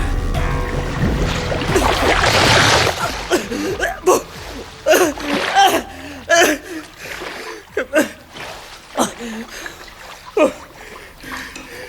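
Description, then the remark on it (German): Water churns and splashes with a dense rushing surge at first as an undersea current drags down toward the sea floor, then breaks into a series of sharp, irregular splashes and gurgling bursts, fairly loud. “Mit erbarmungsloser Gewalt wurde er von einer Strömung erfasst und auf den Grund des Meeres gezogen.”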